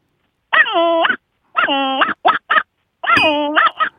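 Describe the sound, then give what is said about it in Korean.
A person imitates an ordinary puppy, with loud whiny yelps and barks: two drawn-out howling cries, two quick yips, then another long whine with short yaps. No other voices. “그 강아지 소리는 너무 잘 내는데 왜 안 됐을까요?”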